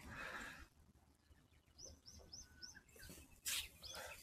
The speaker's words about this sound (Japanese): ひばりだよね、これ、チュンチュンしてるの。きっと。